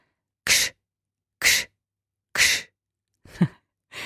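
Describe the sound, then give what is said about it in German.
Four forceful, hissing "ksch" exhalations driven from the belly, made with a hand on the belly as a warm-up exercise to wake up the diaphragm. They are evenly spaced about a second apart, loud, with silence between them; the last burst sounds slightly rougher. “Ksch, ksch, ksch.”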